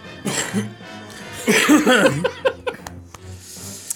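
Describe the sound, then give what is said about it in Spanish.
A person coughs a few times, harsh bursts with a throaty rasp, followed by softer breathy sounds and light throat noises. “Sí, realmente vamos a dejar esa tos ahí en estos tiempos de pandemia.”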